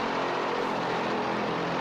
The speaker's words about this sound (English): And now we're back to the airplane.